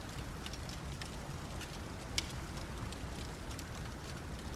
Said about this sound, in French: Il neige, il pleut en même temps.